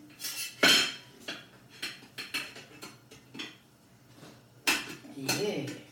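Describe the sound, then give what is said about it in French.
A metal knife scrapes and clinks against a very hot pan in several short, uneven bursts, fairly crisp, as a crumpet made from crêpe batter is pushed loose from the pan, with a faint murmured voice briefly near the end. “Je vais voir comment est-ce qu'il sort. Moi, j'ai envie d'utiliser une spatule comme ça là. Hmm, je pense plutôt un couteau, non Pousser”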